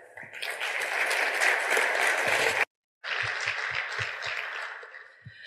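Dense, steady applause from an audience for the panelists, cutting off abruptly for a moment before resuming just as loud and then gradually tapering off.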